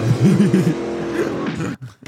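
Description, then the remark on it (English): A car engine revs in a wavering, rising-and-falling whine as a car jumps, followed by a sustained tire squeal, then a few sharp cuts near the end, heard from a television show at moderate loudness. “Look at that car jump.”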